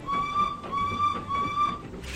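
Three loud locomotive whistle blasts in quick succession, sounded as a stop signal in the dark, each a steady high-pitched tone lasting about half a second, with rumbling train noise underneath.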